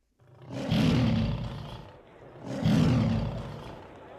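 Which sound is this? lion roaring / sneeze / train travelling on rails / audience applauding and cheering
lion roaring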